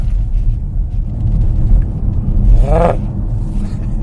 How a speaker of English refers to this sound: The, um, the propulsion sound on. now we're gonna. Now we're gonna. Now we're gonna something. hear digital V8. Digital V8, baby